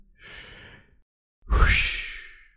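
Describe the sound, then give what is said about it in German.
A deep, breathy inhale played from a soundboard: a soft airy breath first, then after a brief pause a louder, fuller intake of air that slowly fades out. No talking. “der so schön eingeatmet hat.”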